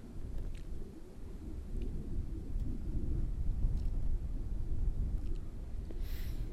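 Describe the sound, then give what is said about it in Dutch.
A distant airplane passes overhead as a steady, deep rumble that swells slightly and keeps going throughout, low and muffled, with no voices. “Op dit moment hoor ik bijna geen vliegtuig. Jawel, toch nogal in de verte.”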